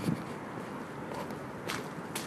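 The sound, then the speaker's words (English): Footsteps crunch over coarse, wet ground at Saltram, a steady gritty texture with a couple of sharper crunches toward the end, moderately loud with no talking. “As, as you're walking on it, it crunches.”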